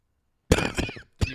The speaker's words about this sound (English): But that was a real cough.